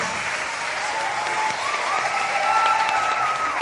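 A show audience applauds a guest's family seated in the front row, a steady wash of dense, sustained clapping from many hands at a fairly loud, even level, with a few faint cheers or whistles rising above it.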